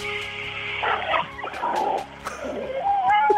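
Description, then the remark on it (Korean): A person mimics the sounds of a large supermarket's underground parking garage with their voice, making rising and falling squeals and rough, engine-like noises, ending on a sustained high squeal, with no words spoken. “대형마트 지하주차장 소리.”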